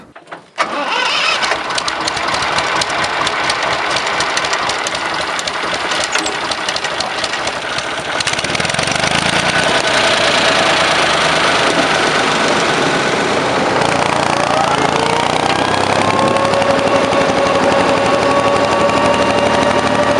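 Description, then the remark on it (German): A MAN 4P2 tractor's diesel engine cranks with rapid knocking, catches, and settles into a loud, steady run whose pitch rises slightly as it revs up, with no talking. “Ja, dann wollen wir uns jetzt erstmal die Videos anhören, wie der Trecker klingt.”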